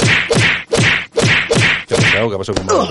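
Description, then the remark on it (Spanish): A quick run of loud, sharp slap sound effects repeating in a steady rhythm, about six smacks in a row, followed by a brief burst of voice at the end. “Vamos, ¿Toñejas para quién?”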